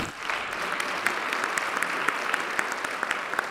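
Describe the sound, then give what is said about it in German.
Sustained audience applause, a dense steady wash of many hands clapping at an even volume, with a few sharper individual claps popping out of the texture throughout, at the Wissenschaftsbuch des Jahres 2019 award ceremony in the Aula der Wissenschaften in the first district, after words by Education and Science Minister Heinz Fassmann. “Das sagte Bildungs- und Wissenschaftsminister Heinz Fassmann unter großem Applaus.”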